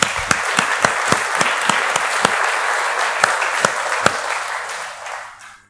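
A room full of people applauding, a dense steady patter of clapping with a few sharper claps standing out, sustained for several seconds before fading away at the end.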